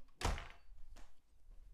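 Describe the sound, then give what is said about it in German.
A door swings shut with a solid, low thunk, followed moments later by a softer latch click, then quiet shuffling and faint rustle with no talking. “Ich mach mal kurz meine Zimmertür zu.”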